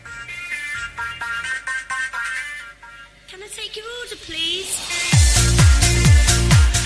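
A novelty pop song starts with bright, choppy synth notes and a sliding melodic line, then a loud, thumping dance beat with pulsing bass kicks in near the end.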